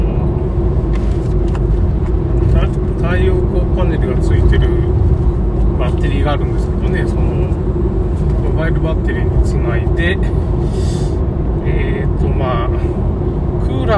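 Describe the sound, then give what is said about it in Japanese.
A steady, loud low rumble of a car cruising along a road at about 80 km/h fills the whole recording, with a man talking over the continuous engine and road noise from inside the vehicle. “でまあ車の速度はまあ80キロぐらいでちょっとぼちぼち行ってて、まあ、なるべく坂道でこう充電するっていうかね回生ブレーキみたいなのもエンジンブレーキがかかるとなんつうかね充電されるんでね”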